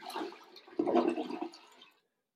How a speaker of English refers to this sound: We have our first toilet flush on the Draft Dudes podcast.